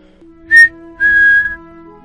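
A mother whistles at mealtime to call her children home: two high, steady notes, a short blast followed by a longer held one. A faint constant hum runs underneath, and no one speaks.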